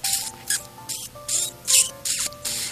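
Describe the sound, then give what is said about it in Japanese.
A voice imitates a squeaky, small-bird-like chirp of a man sucking through his teeth while picking them with a toothpick after a set meal at a restaurant: about seven quick, hissy "chu" bursts in a steady rhythm, fairly loud, with no other talking. “初めその、チュチュチュチュって小鳥が鳴いてるぐらい、もっと僕ちょっと表現、モノマネが下手かったんですけど、もっと綺麗なチューチュー言ってるわけですよ。”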